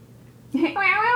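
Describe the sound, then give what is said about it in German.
A male domestic cat that can no longer go outside, its long claws caught on something, gives one drawn-out, rising meow, loud, after a brief moment of near silence. No one speaks over it. “Ähm, du merkst ja, also die Katze kann nicht mehr raus.”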